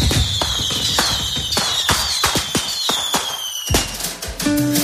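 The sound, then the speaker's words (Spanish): Fireworks explode in a rapid, irregular barrage of sharp cracks and bangs, with a high whistle slowly sliding downward through the first seconds. The volley stays loud and dense throughout, with no voices. “No hay lugar de España que no tengan estas fechas alguna feria o alguna romería que tenga como fin de fiesta los fuegos artificiales, pero ¿Cómo funcionan por dentro los fuegos artificiales y por qué explotan formando esas figuras?”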